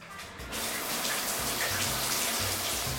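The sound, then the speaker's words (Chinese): Water gushes steadily from a tap into a bath, a constant loud splashing hiss that starts abruptly after a brief quieter moment, with a low gurgling rumble underneath. No one speaks. “又或是洗澡洗到一半”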